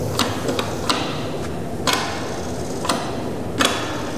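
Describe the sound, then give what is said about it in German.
A Siemens electric hand dryer ticks with sharp, irregular mechanical clicks, about eight over a few seconds, against a steady low background hiss, with no strong rush of blowing air. “Er tickert nur, aber er macht nicht trocken.”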